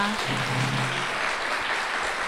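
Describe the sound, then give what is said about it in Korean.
An audience claps steadily for lecturer Pak No-ja at the close of a lecture, a dense wash of many hands applauding at an even level throughout, with a brief low murmur of a voice near the start. “마지막으로 오늘 한 2시간 가까이 고생해주신 박노자 선생님께 다시 한 번 큰 박수 부탁드립니다.”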